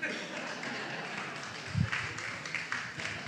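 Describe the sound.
A few men, about seven, clap sparsely and unevenly, scattered handclaps rather than full applause, over a steady background hiss and faint voices.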